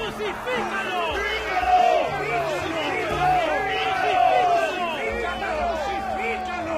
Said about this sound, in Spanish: Pero la turba rugió aún más fuerte.